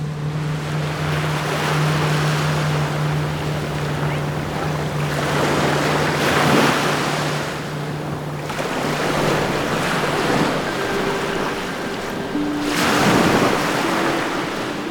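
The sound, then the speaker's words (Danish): A boat heading toward harbour pushes through open sea, its steady low engine drone under a constant rushing wash of water, with louder splashing surges as waves break against the hull every few seconds. “Endelig mod havn, og så skal båden måske nok lige en tur rundt om en mekaniker.”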